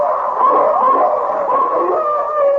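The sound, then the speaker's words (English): Several wolves howl together in a steady, overlapping chorus, their long wavering tones rising and falling without pause. The howling is fairly loud and fills the whole stretch, with no talking. “When we run, the wolves chase us as fast as they can, do they not?”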